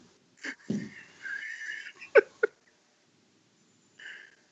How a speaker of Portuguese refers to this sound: Ai, tá respirando muito fundo.